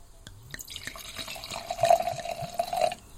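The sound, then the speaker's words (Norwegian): A drink pours steadily into a glass for about three seconds, a continuous splashing trickle with a ringing tone, swelling louder near the end before stopping abruptly. No one speaks. Poured outdoors, nearly under open sky, at Guds lille vingård in summer. “Men uansett, jeg heller. Hør på den fine lyden.”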